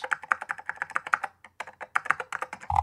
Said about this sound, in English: Let me type in shelters with lots of shih tzus. So I have a choice.